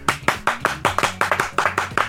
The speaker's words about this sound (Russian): Зрители аплодируют, аплодировали, кончили аплодировать.